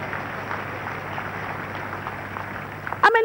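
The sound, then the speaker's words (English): A large crowd claps steadily together for Jesus in a dense, sustained burst of applause, fairly loud, before it cuts off as a voice or tonal sound begins right at the end. “Let's clap for Jesus.”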